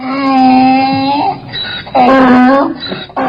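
A voice imitates a donkey's bray with drawn-out, wailing hee-haw calls: one long sustained cry, then a second loud burst and a short third one, strained.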